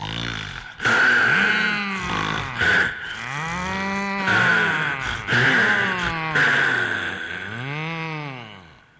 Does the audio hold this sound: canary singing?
no